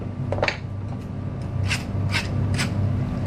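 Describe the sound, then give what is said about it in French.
A pepper mill grinding pepper over half of a plate in several short, gritty rasping bursts, a quick one early and then three steadier twists in a row, over a low steady hum, with no talking. “Un petit coup de moulin à poivre.”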